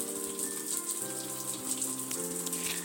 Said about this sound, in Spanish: Ahora está lleno de espuma. Hay que abrirle la ducha para que se le pueda ir eso.